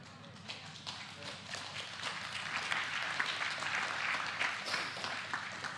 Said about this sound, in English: It helps me take a drink when you do that, so thank you for a little applause from time to time.